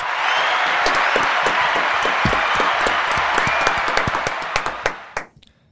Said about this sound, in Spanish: Eh, mejor prefiero darles sus debidos aplausos.